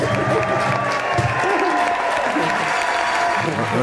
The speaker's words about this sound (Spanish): No, no, os cansáis de aplausos, ¿eh? no os canséis.